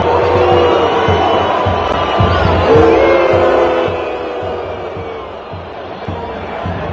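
A huge stadium crowd roars and jeers at Barça player Piqué each time he touches the ball, with sharp whistles cutting through and rhythmic chanted insults rising and falling in a dense, loud wall of voices that eases slightly toward the end.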